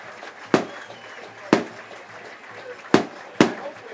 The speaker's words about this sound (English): The uh, fireworks are going off here at Adam Central.